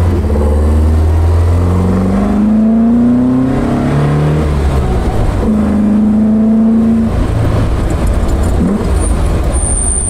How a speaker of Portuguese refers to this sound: E esse som, hein? Ah, delícia! esse som, a proximidade dos pedais, esse som do escape. Você leva o câmbio até a posição, é fantástico.